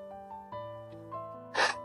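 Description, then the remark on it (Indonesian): A single quick, breathy intake of air near the end, brief and fairly loud, over soft sustained musical tones with no talking. “Sebelum cerita, tarik napas dulu.”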